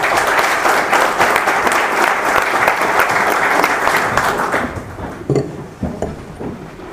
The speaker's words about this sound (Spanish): Escuchemos ahora a Óscar Mauricio Guerra Ford, comisionado presidente del Instituto de Acceso a la Información Pública y Protección de Datos Personales del Distrito Federal. Vamos a darle un fuerte aplauso, por favor.